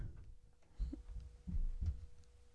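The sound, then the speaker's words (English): Muffled, low thumps of a young girl's running footsteps pound through the house as she gallops around like a horse, with three or four heavy impacts in quick succession, over a quiet background hum. “I hope you guys can hear uh, my kid running.”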